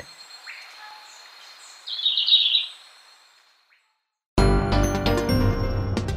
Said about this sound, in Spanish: El trino del verderón castaño forma parte del Banco de Sonidos de Aves Colombianas recopilado por el Instituto von Humboldt y la Universidad de Cornell.